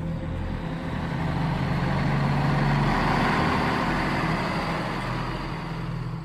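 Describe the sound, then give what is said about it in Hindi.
A heavy truck engine roars steadily for several seconds as the accelerator is pressed, tires spinning at full speed on rain-wet ground while the vehicle does not move forward; a loud low droning rumble with a rough, gritty texture that holds an even level throughout, with no voices. “truck की आवाज वहां गूंज रही थी टायर पूरी रफ्तार में घूम रहे थे पर गाड़ी जरा सी भी आगे नहीं बढ़ी”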